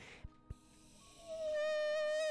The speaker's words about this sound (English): Beep. It's an alarm sounding.